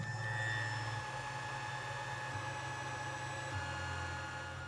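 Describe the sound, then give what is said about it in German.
A 3D printer running, a steady mechanical whir with tonal stepper-motor whines that shift pitch every second or so, with no voices. “ich glaube, das ist der 3D-Drucker hier, der arbeitet, arbeitet gerade.”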